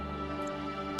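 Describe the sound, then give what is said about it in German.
A voice imitates a soft, drawn-out whimpering howl, holding one steady whining tone for about a second before a sudden burst of breathy noise cuts it off. “als du den Helm anhebst, spürt ihr wieder eine leichte Windbrise und hört aus dem Helm, der gerade vor euch ist, ein leichtes Jaulen”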